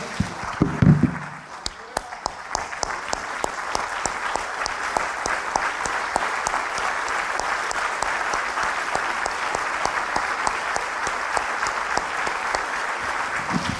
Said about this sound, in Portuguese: Eu vou convidar os irmãos para nós antes de tomarmos a ceia, aplaudirmos o Senhor Jesus que está aqui conosco. O rei a gente aplaude em pé.